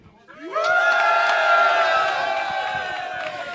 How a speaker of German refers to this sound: Das ist dein Applaus